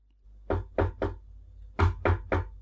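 Six knocks on a door in two groups of three, each a firm, hollow rap with a low thud, separated by a short pause, as a woman knocks at the door of a home. No voices are heard.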